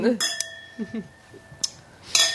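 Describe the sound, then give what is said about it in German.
Glasses clink together in a toast, several bright, ringing taps with a lingering tone, while people murmur softly in between. “vielleicht hat sie sogar was getrunken, so wie wir. Prost an dieser Stelle.”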